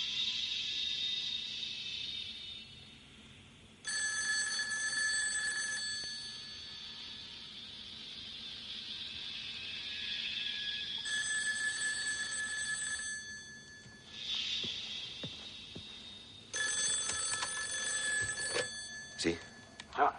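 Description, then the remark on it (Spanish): A telephone rings three times in long, steady bursts with short pauses between, played back from a tape in a tape recorder in a motel room, over a faint hissy background like an old tape recording. “¿Quieres oír la última llamada del jefe?”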